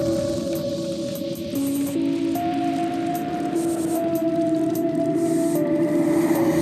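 Experimental electronic bass music from an upcoming Pokemon-themed EP plays steadily from SoundCloud on a computer: held synth tones slide and step between pitches over a dense, hissy wash, with faint clicky accents up top and no voices.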